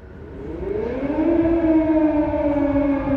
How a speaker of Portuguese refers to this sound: soaram as sirenes.